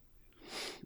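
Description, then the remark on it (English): A single sneeze: a short indrawn breath swelling into a hissy, breathy burst that cuts off abruptly, fairly soft, with no talking. “Bless you.”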